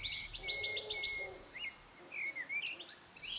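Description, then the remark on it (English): Birdsong outdoors: blackbirds calling in a run of quick, bright, repeated notes followed by scattered fluting whistles, over a soft hiss of background ambience. “Blackbirds calling, bluebells, home.”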